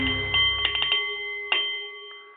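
A Nepalese metal meditation bowl chimes with a sustained, shimmering ring, struck several times in quick succession and again a moment later, its layered tones lingering clearly and steadily.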